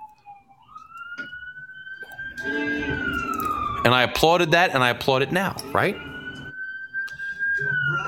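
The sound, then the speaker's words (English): Wailing emergency vehicle sirens on a city street in Newark sweep steadily up and down in the background, loud and continuous, while a man talks over them in the foreground. “And I apologize for the sirens.”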